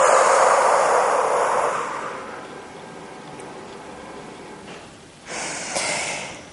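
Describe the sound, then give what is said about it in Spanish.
Forceful breathing in a guided breathing exercise, pushing with the whole ribcage and belly: a long, loud, rushing exhalation fades into quieter airflow, then a sharp, strong burst of breath pushes out again near the end. No one speaks. “Exhalamos con fuerza.”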